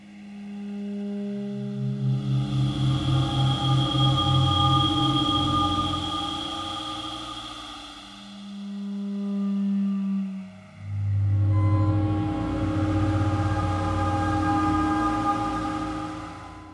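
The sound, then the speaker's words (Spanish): Cabeza de montaña, a piece for siren organ and electronics commissioned by the Vortex ensemble of Geneva: sustained, overlapping siren-like tones drone and swell with electronic textures, a pulsing low layer throbbing early on, then the sound briefly thins before a dense, buzzing chord returns. No voices are heard. “Cabeza de montaña para órgano de sirenas y electrónica es un encargo del ensamble Vortex de Ginebra para su octava temporada de conciertos.”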